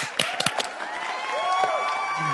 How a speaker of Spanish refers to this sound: Un aplaudimiento.